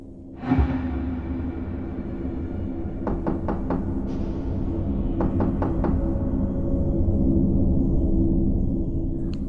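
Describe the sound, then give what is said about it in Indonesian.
Two bursts of sharp knocking on a house door at about half past one in the morning, about four quick raps each, separated by a short pause, over a low steady background hum. No one speaks. “bapak ini pun udah balik pulang sekitaran jam 2 itu jam 2 pas setengah dua subuh gitu pintu rumah klien diketok”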